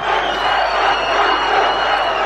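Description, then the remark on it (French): A large crowd in Sarajevo cheers and acclaims President François Mitterrand in one loud, sustained roar of voices, holding steady without a break for the whole stretch, with no single voice standing out. “Sarajevo, ses ruines, ses milliers de victimes, ses snipers et un président dans une ville martyre acclamée par la foule.”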